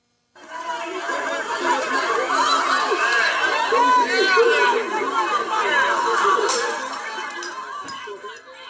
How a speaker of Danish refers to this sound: Ja, vi har lidt lyd for demonstrationerne, vi lige kan høre her.